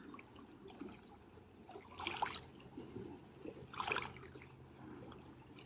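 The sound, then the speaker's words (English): Steady, gentle water trickling over rocks with a continuous low burble, swelling into two brighter splashing gurgles before settling back to a soft flow. “listening to the song of the water and rocks, the song of movement.”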